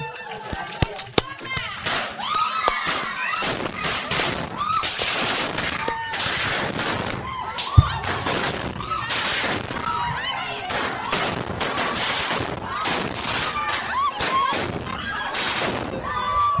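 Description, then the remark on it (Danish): A dense, continuous barrage of sharp crackling pops and bangs, like indoor fireworks going off, fills the whole stretch, with raised voices mixed into the commotion. “de troede, det var indendørs fyrværkeri.”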